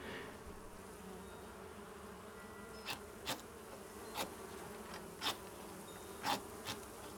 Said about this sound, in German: Fürs Protokoll, die Bienen im gelben Kasten scheinen sich gut erholt zu haben.